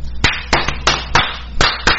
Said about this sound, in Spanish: Un aplauso no, un juego de aplausos para DataCraft Guatemala.